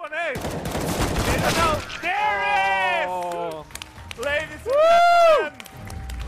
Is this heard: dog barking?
no